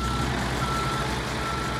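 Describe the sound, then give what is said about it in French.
A backhoe loader's reversing alarm on the Vapeur construction site in Dijon, France, sounds as a thin, high-pitched tone over a steady, loud diesel engine rumble, with no one speaking. “Ça se voit pas, je suis aux commandes du tractopelle.”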